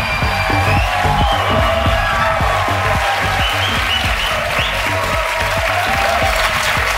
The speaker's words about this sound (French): Ben, vous auriez pu continuer à applaudir un peu plus. Ah, Bonjour, bonsoir, J'ai senti que c'était spontané.